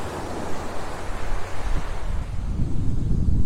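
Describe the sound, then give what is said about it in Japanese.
Morning ocean waves wash steadily onto the shore at the Hayama seaside under a blue sky with some clouds, a broad rushing hiss with low rumbling swells building toward the end, mixed with some wind buffeting. No voices. “朝の波音とシトラスの風🍋〜葉山の海辺から”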